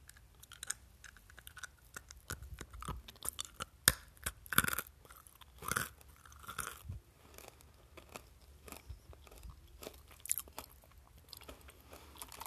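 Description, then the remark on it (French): Crunchy chewing of peanuts taken from a jar, with irregular sharp bites and grinding crackles over about twelve seconds, louder bursts mid-way, with no talking. “Vraiment croquant sur les, sur les dents.”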